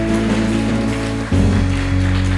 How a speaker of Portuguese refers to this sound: Diga glória a Deus. Dê um forte aplauso ao Senhor. Aleluia.